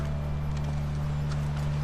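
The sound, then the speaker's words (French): Horse hooves clip-clop at an unhurried pace, the soft knocks fairly faint and spaced out over a steady low droning hum, with no one speaking. “Désolé d'avoir volé le cheval.”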